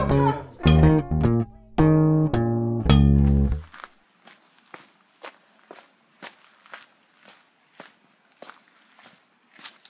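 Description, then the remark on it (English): A short run of loud, bright melodic tones gives way to about a dozen soft, crunchy footsteps walking down a tree-lined path at the San Rafael waterfall in Ecuador, in a steady, even rhythm. “we've finally arrived here at the San Rafael waterfall in Ecuador and walking down a path, a beautiful path.”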